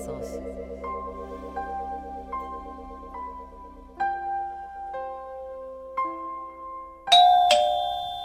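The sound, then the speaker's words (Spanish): A melodic doorbell chime plays a series of ringing tones at a steady pace, each note sustaining and overlapping, ending with two louder, brighter dings near the close. “Tocan el timbre.”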